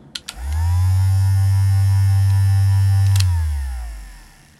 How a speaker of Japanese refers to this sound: で、まあ、このサスリバイブというのは何ぞやと言うとですね、サスリバイブまんま商品名なんですけど、なんだこう、マッサージ機ですね。家庭用のマッサージ機。うん。かなり大きいです。ちょっとつけてみます。